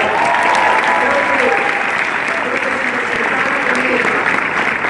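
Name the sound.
audience applause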